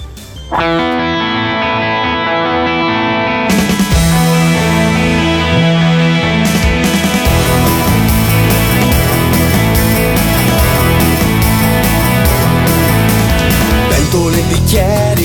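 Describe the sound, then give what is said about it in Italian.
A TV theme song plays loud and full: heavily effected, distorted guitar-driven band music with a steady beat, starting thin before the full arrangement kicks in after a few seconds. No talking. “Ascoltiamoci la sigla dei Cesaroni”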